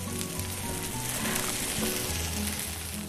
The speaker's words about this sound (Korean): 은은한 불에 타닥타닥 고기 익는 소리가 좋았습니다.